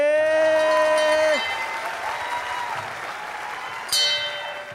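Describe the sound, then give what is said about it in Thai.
A loud audience at a Thai stand-up comedy debate show erupts in high-pitched screams and cheers over steady applause, the piercing shrieks fading into clapping and crowd noise before another burst of screaming near the end. “โอ้ขอบคุณเสียงกรีดครับขอบคุณเสียงกรีดครับ”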